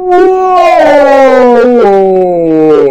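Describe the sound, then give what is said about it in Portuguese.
A voice imitates a long, mournful horn blast sounding across a camp, faint and distant: one sustained tone that slowly slides downward in pitch for about three seconds, with no other sounds around it. “parou no meio de um passo, engolindo a praga, enquanto o som do berrante estremecia pelo acampamento, tênue e longínquo, mas inconfundível.”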